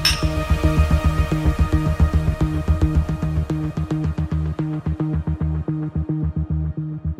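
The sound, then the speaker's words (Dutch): Glasses clink together in a toast, a rapid run of bright clinks in quick succession over a low steady hum, slowly thinning out toward the end. No one speaks. “Proost jongens.”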